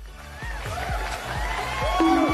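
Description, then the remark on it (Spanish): An applause sound effect: a steady crowd roar with scattered sharp claps and rising whoops, growing a little louder toward the end. No one speaks over it. “Ahí está tus Otros aplausos.”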